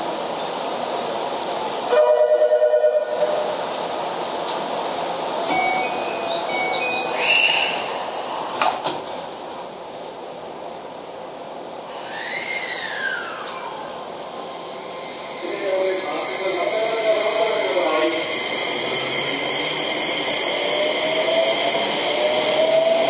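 A Keio 5000 series train departs from platform 1 on a Motoyawata to Hashimoto service, with a rising electric motor whine over steady rumble, short warning tones and chimes sounding early, and a high hum climbing in pitch toward the end.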